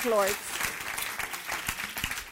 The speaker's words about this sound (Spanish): Dele ese fuerte aplauso al Rey de Reyes y Señor de Señores.